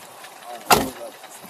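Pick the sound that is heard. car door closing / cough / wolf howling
car door closing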